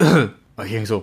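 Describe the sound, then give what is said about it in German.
A man telling a story breaks off to make a short, throaty cough-like rasp, imitating a cough heard while driving on the autobahn to Hamburg at night, followed by a brief pause before he resumes talking. “hat gehustet und kann nicht antworten, ist betrunken”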